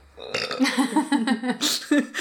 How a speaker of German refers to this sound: ich habe wissend gerülpst dabei. Ja, es klang, klang also ich habe natürlich dein Gesicht dazu gesehen, aber es klang auch ein bisschen wissend.